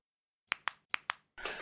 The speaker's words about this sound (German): Nämlich ein Kugelschreiber.